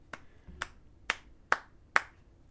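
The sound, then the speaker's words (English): Five slow, evenly spaced light hand claps, crisp, with no talking; a deliberate, unenthusiastic sarcastic golf clap at a Canon camera that turned itself off while recording video. “a little golf clap because that was ridiculous.”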